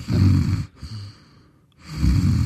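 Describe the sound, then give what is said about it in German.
A voice imitates rhythmic snoring with two rough, throaty inhaled snores separated by a short quiet pause, fairly loud, with a softer snort between them. “Der, äh, wenn er im Rhythmus geschnarcht hat, konnte ich gut einschlafen.”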